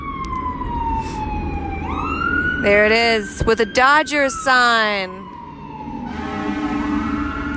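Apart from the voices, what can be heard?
emergency vehicle sirens passing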